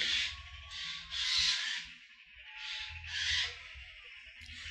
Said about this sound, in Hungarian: Na mindegy, itt közben a madarak nagyon szeretik egymást a kertben.